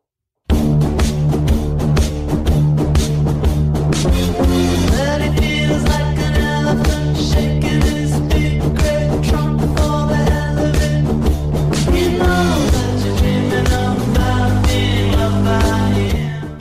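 A loud, full-band rock song plays continuously with steady drums, driving bass and layered guitars or synths, with no talking over it, cutting off abruptly at the end.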